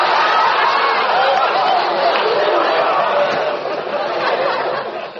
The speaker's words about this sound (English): I look out the window again. Crowds, nothing but crowds. Everybody doing the last minute Christmas shopping.